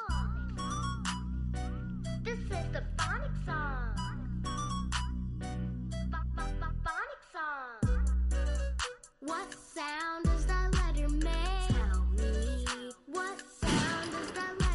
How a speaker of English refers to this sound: Hold on. this is the phonic song.